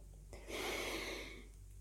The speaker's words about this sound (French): Je respire par le nez, le plus longtemps possible, et vous descendez le plus ce qu'on appelle la respiration abdominale, hein, c'est-à-dire vous descendez dans le ventre, vous laissez descendre le plus bas possible, symboliquement bien sûr.